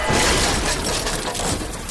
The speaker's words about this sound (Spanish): La cabeza del sujeto cayó sobre el volante, haciendo que el claxon no dejara de sonar mientras el auto se estrellaba contra un poste en la esquina de la banqueta.